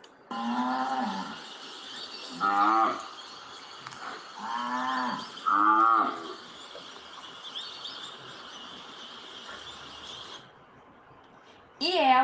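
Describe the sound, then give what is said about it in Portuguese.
A person imitates an ox with several drawn-out, wavering moos in a row, fairly loud, over a steady hissy background, followed by a short burst of sound at the end. “Diga, seu boizinho, como é que você faz?”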